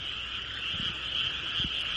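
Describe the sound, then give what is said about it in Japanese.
A dense, continuous chorus of frogs croaking in Japan, heard from a distance, a steady trilling hum with a couple of deeper croaks standing out briefly. “遠方から聞こえてくるカエルの合唱を聞くときくらい、日本の自然という感の深い時はない。”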